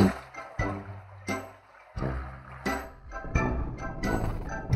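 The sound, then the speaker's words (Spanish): Water splashes and sputters in irregular bursts from a leaking, dripping sink, with a few sharp clanks and gushes over about five seconds, no voices. “¿Qué le pasó al fregadero? Es de que goteaba.”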